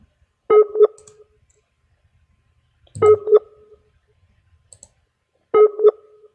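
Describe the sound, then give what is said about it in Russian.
Telephone dialing tones as a call is placed again: three short electronic bursts spaced evenly a couple of seconds apart, each a quick double blip of mid-pitched tones with a sharp click at the start, with silence between and no talking. “Ну, еще раз позвоню.”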